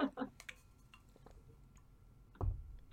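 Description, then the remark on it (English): A giant heavy water bottle is set down on a desk with a single dull thump, preceded by a brief snippet of voice and a few faint clicks. “trying not to like put my giant heavy water bottle down so loud that my microphone picks it up, but I don't think I'm doing a very good job.”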